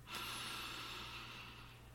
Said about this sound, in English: So for you, this can be meditation, it could be jogging, it could be as simple as a one minute breath work and just breathing in